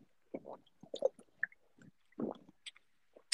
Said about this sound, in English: I was getting some water in.